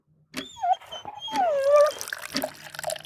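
A dog whimpers in a few high, wavering whines, with some faint clattering noises around them and no talking.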